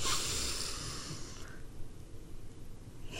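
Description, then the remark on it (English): A long, steady breath drawn in through the nose during a relaxation breathing exercise, with a hissy airy rush that fades after about a second and a half into a quiet held pause. “We're going to breathe in through the nose and hold it for a few seconds.”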